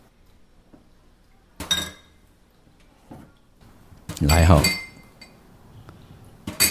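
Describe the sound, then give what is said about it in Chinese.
Dishes and cutlery being washed in a sink: scattered bright clinks and clatters of glass and metal, with a louder rattling burst in the middle, over faint running-water noise. A voice speaks briefly. “这个声音，我我我我我们已经可以直接跟你说，就就是在洗东西。”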